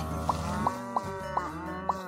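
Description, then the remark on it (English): Low, drawn-out cow moos from a video game, layered with five quick bright blips at a steady pace, no one talking. “Alright, got some milk for my cows.”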